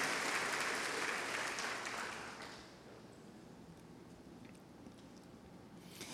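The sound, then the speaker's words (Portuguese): A crowd claps in a dense burst of applause that holds steady for a couple of seconds, then thins and fades into a softer, scattered patter with no voices. “E eu queria que você aplaudisse a Deus pelos recomeços de Deus nas nossas vidas.”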